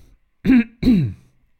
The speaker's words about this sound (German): An der Stelle huste ich, glaube ich, gerade richtig.